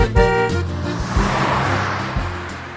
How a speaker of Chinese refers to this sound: 一来到这个场景呢，相信你首先会听到令人兴奋的赛车马达的声音。你看到墙上那辆奇形怪状的车了吗？这种车被称为方程式赛车，也被称为 F1 赛车。这种车天生就是用来比赛的。